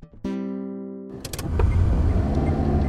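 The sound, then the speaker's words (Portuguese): A steady electronic tone hums briefly, then a car engine cranks and catches, settling into a loud, continuous rumble as the car is driven at night. No voices. “Certa noite, convenci meu irmão a me deixar dirigir seu carro.”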